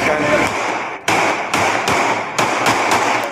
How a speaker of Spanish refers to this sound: Para los ciudadanos que grabaron el hecho, se trató de un abuso de autoridad a pesar del ataque, pues se logra apreciar el momento en que uno de los uniformados toma su arma de dotación y dispara en varias oportunidades contra los hombres.